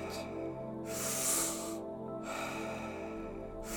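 Deep, airy breaths drawn in and pushed out in a steady rhythm, each lasting about a second, fairly loud over a soft sustained musical drone, during the second round of a guided breathing exercise.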